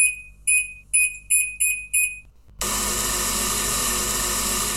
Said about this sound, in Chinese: 我怎么听都像是冷气压缩机坏掉的声音。